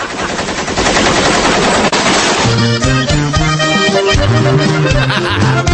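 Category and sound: sound effect, automatic gunfire bursts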